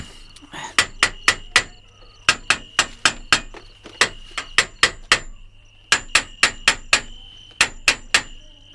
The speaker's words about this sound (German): was wollen Sie denn mit dem Hammer? Den Käfig kontrollieren. Ich will wissen, ob die anderen Stäbe in Ordnung sind, sonst bricht der Gorilla sofort wieder aus, wenn er morgen in diesen Käfig kommt.